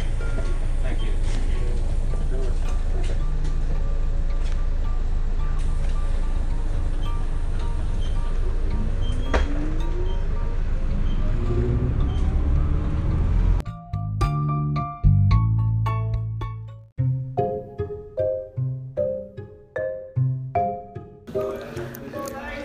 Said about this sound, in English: I'm re- doing a podcast on the bus. Oh, hold on, folks. We're coming round the corner. Woohoo! Remember to fasten your seatbelts.